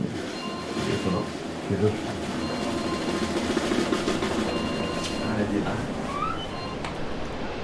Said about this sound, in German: Bahnhof. Stazione.